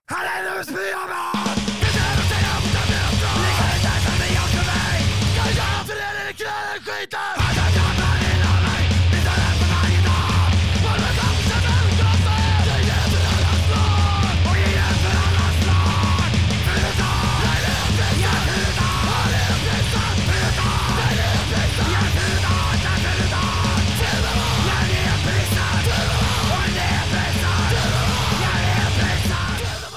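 A loud, dense punk rock song with shouted, yelling vocals over driving distorted guitars and heavy bass, cutting out briefly near the start before crashing back in and pounding on steadily.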